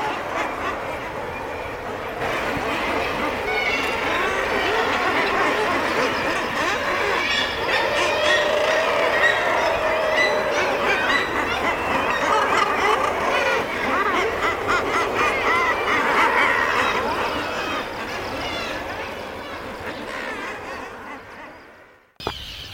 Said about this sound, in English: I've grown to quite like it because you associate it with this just extraordinary melange of, of, of birds. And uh, yeah, on its own, it's probably quite horrid, but I kind of quite like it. Um, I'll leave you with the sounds now.